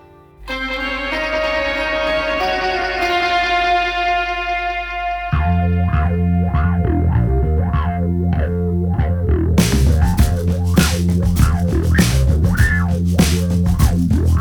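A song opens on a loud, sustained distorted drone with layered tones, then shifts into a steady, pulsing rhythmic groove that grows brighter and busier; no chant-like spoken vocals are clearly evident yet.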